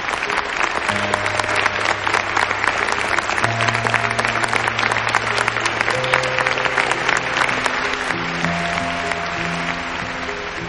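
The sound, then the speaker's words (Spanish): Steady, dense applause from an audience, many hands clapping continuously for about ten seconds, with sustained low musical tones playing underneath. “Los miembros del grupo de Donnie, Tim, Susan y Anu aplauden entre el público.”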